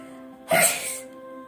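A single sharp sneeze bursts out clearly, with a brief voiced catch at the start followed by a breathy, spraying rush of air, heard alone against a quiet background.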